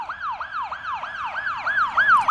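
An emergency vehicle siren yelps in rapid, repeating up-and-down sweeps, about three per second, growing slightly louder toward the end as if approaching. No voices are heard.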